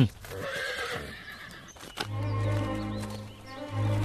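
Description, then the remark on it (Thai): The priest Ruhaka's finely decorated horse whinnies loudly with a long, wavering neigh, and hooves clop along beneath it in an uneven rhythm as it is walked around to be shown off. “เมื่อมีข่าวปุโรหิตรุหกะได้ม้าต้นทรงเครื่องสวยงามมาใช้ทุกวันจึงมีผู้คนมารอชมม้านั้นตลอดเส้นทางที่ปุโรหิตใช้สัญจร”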